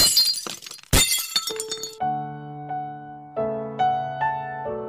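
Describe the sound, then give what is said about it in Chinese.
Glass clinks and then shatters in a loud, bright crash with scattered tinkling fragments, followed by a series of clear, sustained ringing tones that chime one after another. “但玻璃发生碰撞时，只能碎裂吗？”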